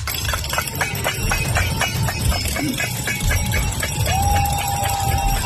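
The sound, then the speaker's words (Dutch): A climate alarm is sounded in the afternoon by protesters and churches across the country: rapid, repeated clanging strikes over a constant rumbling noise, joined near the end by a steady sustained tone like a horn or siren. No one speaks. “Vanwege actievoerders en kerken die in het hele land gistermiddag een klimaatalarm lieten afgaan.”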